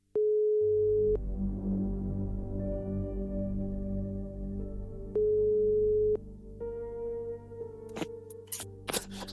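A telephone ringback tone sounds twice, each steady one-second beep separated by a long pause over a low line hum, followed by a few sharp clicks as the line picks up.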